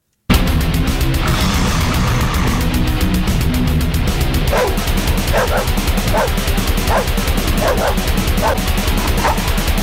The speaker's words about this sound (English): you must feel so fucking stupid now after how different these dogs sounded in this song